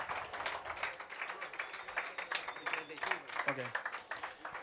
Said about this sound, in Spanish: Y el mejor de los aplausos, te queremos,